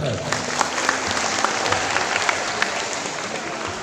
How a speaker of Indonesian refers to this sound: saya cek paling ujung dulu Sandai Sandai tepuk tangan Sandai